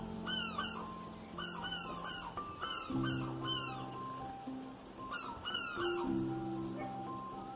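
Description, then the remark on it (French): Birds chirp in quick, bright bursts that repeat every second or two, clear, over a steady low drone and a soft, continuous rush of wind in the trees of a garden. “Vous prenez le temps d'écouter le vent et les oiseaux dans les arbres un instant.”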